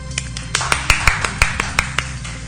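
A short burst of scattered clapping, about a dozen sharp, separate claps at an uneven pace, fairly loud, like a few people applauding briefly. No voices.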